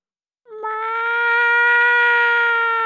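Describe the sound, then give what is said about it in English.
A person voices a single long, drawn-out meow, imitating a cat. The steady, nasal cry starts abruptly, holds loud and even for over two seconds, and has no other talk around it. “Meow!”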